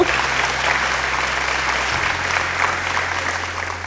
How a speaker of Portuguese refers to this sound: Aê! Solta os aplausos da torcida, produção!